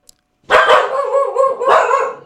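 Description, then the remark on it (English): Dogs bark loudly in a rapid, overlapping burst of repeated barks that runs for about two seconds, with no talking. “Those are my dogs.”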